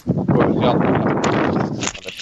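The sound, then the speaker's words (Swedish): Loud, steady wind buffets the microphone, a rough low rumble with gusty swells that fills the whole stretch and eases slightly near the end. “Helvete, det blåser. Jag hör inte vad struten säger.”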